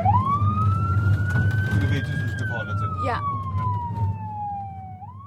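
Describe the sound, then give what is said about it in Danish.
An emergency vehicle siren wails loudly, its pitch sweeping slowly up and then down over a steady low engine rumble, while a voice briefly speaks; the siren is on a large van in ambulance colours with blue flashing lights, being driven around by an acute psychiatry team. “Øh, og så har den så også sirener og, og blå blink.”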